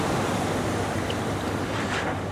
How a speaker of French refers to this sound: J'ai enregistré quelques vagues, j'ai enregistré quelques sons d'écoute, de voiles, de tissus qui se, qui se baladent dans le vent, qui étaient très joli.